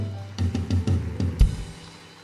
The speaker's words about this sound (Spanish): Dale un aplauso a él.